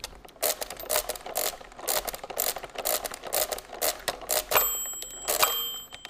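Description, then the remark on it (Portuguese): Rapid mechanical clattering and ratcheting as the noisy crank of a hand-cranked calculating machine is turned, a steady run of sharp metallic clicks and whirs repeating, with a brief bell-like ring near the end. “Porque a manivela de dar era barulhenta.”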